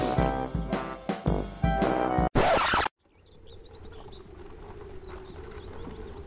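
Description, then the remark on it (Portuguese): Loud, sharp hoof clip-clops strike in an uneven rhythm, then give way to the low, steady rumble of a horse-drawn cart rolling slowly over rough, uneven terrain, with faint bird chirps in the background. “Depois de mais ou menos umas três horas rodando lentamente com essa carroça nesse, nesse terreno mais acidentado”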